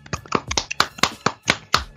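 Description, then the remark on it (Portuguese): A short burst of applause: hands clapping in a quick, fairly steady rhythm, around eight or nine crisp, sharp claps over two seconds, with no one speaking. “Salva de palmas para vocês, seus maravilhosos maravilhosos.”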